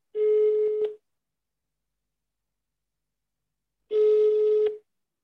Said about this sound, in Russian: Давай узнаем, как проходит лето в Италии. Звони. Набираю.